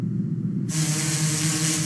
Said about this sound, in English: That buzz you hear hovering over Sunnyside are drones on a mission. It's another amazing tool. A tool to track stray dogs.